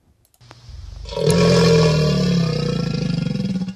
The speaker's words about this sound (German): Aber das ist kein Krokodil, oder? Doch, das war ein Krokodil. Das ist ein Krokodil.